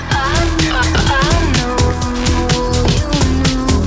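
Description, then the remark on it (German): A loud electronic remix track plays continuously in the background, with a steady driving beat, deep bass and bright synth melodies layered over the rhythm; no one speaks over it. “Ihr hört es im Hintergrund. Es ist der …”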